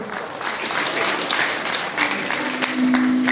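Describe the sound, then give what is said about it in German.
Steady applause from an audience fills the space, a dense wash of many hands clapping at even volume throughout, with a faint sustained tone creeping in near the end. “So, euer Applaus.”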